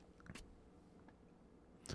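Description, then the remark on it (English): A voice imitates a man chewing tobacco and spitting: wet mouth noises with a sharp burst near the start and another at the end, and quieter smacking in between. No words are spoken. “spitting. He's fucking chewing tobacco.”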